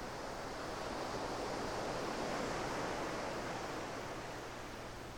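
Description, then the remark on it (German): A steady, soft rush of ocean surf washing onto a beach, swelling gently midway and easing again, with no voices and nothing else standing out. “Das Rauschen des Meeres”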